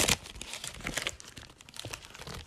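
A paper receipt being crumpled, a dense run of crisp crackles and crinkles lasting a couple of seconds, with a sharper burst at the start and no talking.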